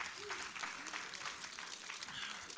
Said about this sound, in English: Applaud the Lord.